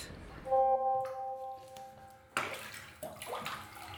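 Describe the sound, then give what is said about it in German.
A short steady electronic tone fades out, then water sloshes and splashes in a bathtub in a few uneven bursts of moderate loudness. “Hallo, ich bin in der Badewanne.”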